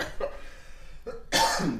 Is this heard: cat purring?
no